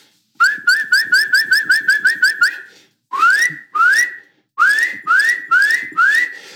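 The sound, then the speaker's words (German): A Eurasian nuthatch in a forest gives loud, clear, high whistles: a fast run of about ten rising notes, then a pause and several slower, fuller upslurred whistles, prominent with no talking. “Wir übersetzen das mit üb, üb, aber ein voller, satter Pfeifton ist oft der Kleiber.”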